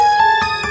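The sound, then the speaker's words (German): A brief electronic telephone ring, a steady bright tone with faint rhythmic pulses through it, loud, with no voices. “Ach, das ist das Telefon.”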